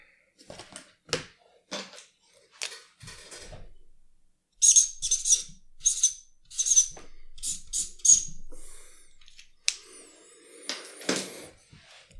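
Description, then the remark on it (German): An Edding felt-tip marker squeaks across a surface in quick strokes, a few sparse squeals at first, then a louder, denser run of sharp chirping streaks with short pauses between them. “Es ist, ihr könnt das hier jetzt nicht sehen, aber dieses zufriedene Gesicht von Jasmin, wenn sie diesen Edding hört.”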